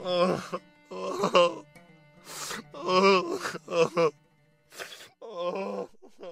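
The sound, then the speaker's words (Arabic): A man wails and sobs in a series of drawn-out, quavering voiced bursts separated by short breaths and pauses, with no intelligible words. “راح يوسف غرفته بسرعة لأنه ما قدر يمسك نفسه وقلبه حن على أخوه وقام يصيح”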